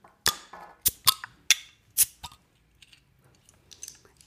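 An Otterkringer 0, Josef non-alcoholic beer bottle with a pink crown cap being opened: a quick run of five or six sharp, bright clicks and snaps from the cap, followed by a few faint little ticks and a soft trailing fizz.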